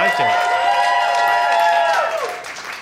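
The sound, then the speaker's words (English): Audience applause with loud, sustained cheering and whooping voices over a steady wash of clapping, holding strong for about two seconds before tapering off slightly at the end. “How about a hand”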